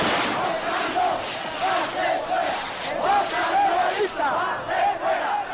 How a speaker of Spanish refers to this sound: Mientras en la calle, algunos manifestantes disfrazados tienen petardos de manera festiva.